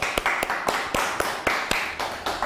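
A small group claps together, a dense wash of overlapping hand claps with a few sharper, louder claps standing out in an irregular rhythm, steady in volume throughout.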